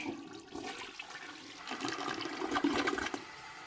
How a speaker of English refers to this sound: Solid flush as always. Quality. Full flush today. Yeah. Full flush. 10 out of 10. The two buttons, not the one.